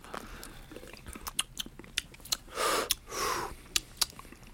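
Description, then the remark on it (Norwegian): Wet mouth noises of beer being tasted in a studio: a series of quick lip smacks and clicks, with two longer slurping draws in the middle, fairly quiet and with no talking. “Det slurpes og smattes i studio.”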